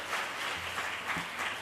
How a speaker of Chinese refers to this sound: 好，我们用热烈的掌声来鼓励他们。